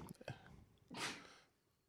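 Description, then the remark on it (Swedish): A single sharp sneeze bursts out following a few brief murmured speech sounds, then fades into quiet. “Prosit.”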